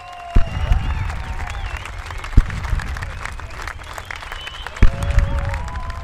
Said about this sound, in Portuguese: Aplausos eufóricos, salva de canhões, era esse o clima.